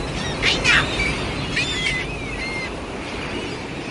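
A few sharp seagull cries ring out in two short bursts as a seagull flies through the air and splashes into the water, over a steady wash of splashing water and surf, with no one speaking.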